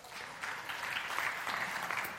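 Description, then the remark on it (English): An audience claps steadily after being asked to clap if they have ever seen street preachers, a dense wash of many hands that holds at a fairly even level throughout, with no voices standing out above it. “Like, you turn or burn, you know, like uh, have you clap if you've ever seen street preachers.”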